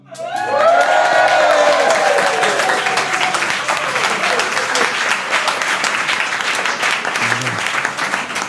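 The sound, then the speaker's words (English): A live audience at WeWork Aldgate bursts into loud, sustained applause with cheers and whoops rising over it at the start, the clapping staying dense and steady throughout. “we do some swears in front of a live audience. Crowd, say hello.”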